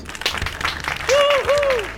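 Steady applause from a group, dense and crackling throughout, with a couple of bright whistles sweeping up and down partway through as the clapping swells louder.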